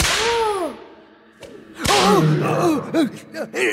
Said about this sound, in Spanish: El dueño del circo dio otro latigazo al suelo